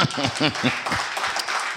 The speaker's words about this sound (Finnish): Ja tiedättekö, live-yleisö voisi antaa semmoiset pienet aplodit,